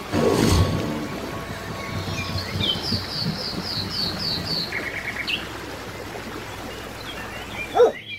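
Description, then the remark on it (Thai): A dog gives a loud bark at the start as dogs fight a crocodile, then birds chirp in quick repeated bursts over a steady outdoor ambience, and a final sharp bark sounds near the end. “สุนัขบางตัวต้องตายไประหว่างการต่อสู้ แต่ตัวที่เหลือก็ยังคงต่อสู้กับจระเข้นั้นต่อไปอย่างกล้าหาญจระเข้ถูกพวกสุนัขกกัดได้รับบาดเจ็บสาหัส จนทนไม่ไหวและก็ได้หนีลงไปในน้ำ”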